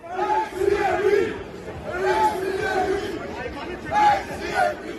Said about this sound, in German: Da haben ja auf dem Opernplatz in Frankfurt Randalierer auch gerufen, ACAB, das ist die Abkürzung für All Cops are Bastards, also alle Polizisten sind Bastarde.